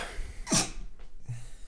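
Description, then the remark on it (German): A single sharp sneeze bursts out, brief and explosive, followed by a soft breath and quiet background noise. No one speaks. “Gesundheit.”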